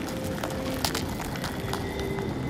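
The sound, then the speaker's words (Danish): A fantasy snake sound effect: a steady, dry rustling hiss with scattered crackles and clicks, holding an even level throughout with no voices. “Men jeg forestiller mig måske, at det lyder lidt hen ad det her.”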